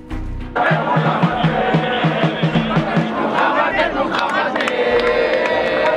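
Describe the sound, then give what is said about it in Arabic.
A large crowd chants together in the heart of Jerusalem under the protection of Israeli police, loud, rhythmic bursts of shouting, voices overlapping in a dense, steady roar that carries on throughout. “وعلى الطرف الآخر من عالم المتدينين المتشددين في إسرائيل وتحت حماية شرطة الاحتلال الإسرائيلي من قلب القدس تسمع هذه الهتافات”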